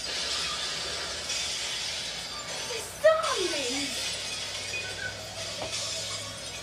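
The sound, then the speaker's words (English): A single sharp crash of car glass shattering as a car is smashed, followed by a brief ringing tinkle of falling shards, set against a steady noisy background. “Jeez, we're smashing so many cars.”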